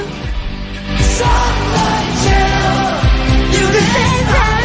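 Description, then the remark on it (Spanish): A loud, dense song plays throughout, with shouted, hard-to-understand vocals over heavy, distorted-sounding backing that stays steady for the whole stretch. “Nunca entendí que dice esta canción. Grito, grito, letra, Sonido.”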